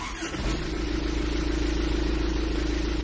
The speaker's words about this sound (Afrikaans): Die 2.8 turbo diesel klink trekkeragtig. Dis hoe lawaaiig die masjien klink met die vensters oop wanneer jy hom aanskakel. Ook die boring se engine is op 'n vorige 2.8 Isuzu bakkies in gebaseer.